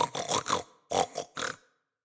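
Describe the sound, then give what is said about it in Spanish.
A pig grunts and snorts in a quick run of short, throaty bursts, fairly loud, with a brief pause before a few more grunts trail off into silence. “resopló el cerdo.”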